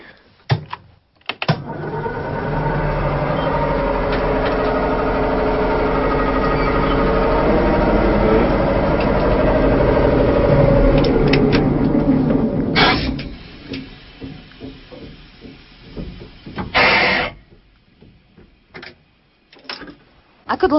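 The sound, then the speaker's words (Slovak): A narrow-gauge mountain railway tram's air compressor starts up to pump compressed air for the brakes and whistle, running steadily for about eleven seconds with a loud, dense mechanical drone and rhythmic chugging, then cuts off, followed by a short hiss and scattered clicks. “Teraz zapneme kompresor, aby sme mohli nafúkať stlačený vzduch, ktorý je potrebný k činnosti brzd a takisto aj k pišťali.”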